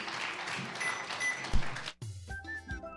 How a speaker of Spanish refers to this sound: Con un fuerte aplauso despedimos a Gracias, gracias. felicidades. ¡Feliz aniversario!